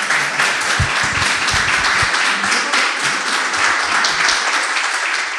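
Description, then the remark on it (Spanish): Sustained audience applause welcoming a guest at the start of a talk: dense, steady clapping from many hands at an even, fairly loud level throughout, with a few sharper low thumps early on and no talking over it. “Así que, eh, sin mucho más, pido un fuerte aplauso para Cacho y vamos a empezar la charla.”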